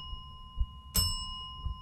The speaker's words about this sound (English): You have to hit the bell twice.